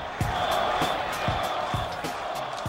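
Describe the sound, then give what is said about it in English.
The crowd at Dodger Stadium roars for pitcher Nomo in a loud, unbroken wash of cheering, with steady rhythmic thumps about twice a second, like clapping or stomping, running underneath. “They are roaring here at Dodger Stadium.”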